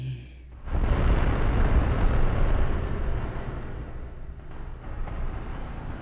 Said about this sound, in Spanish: Oigan, yo me imagino lo que fue esa explosión del volcán Tambora, pero no entiendo eso de los kilómetros cúbicos.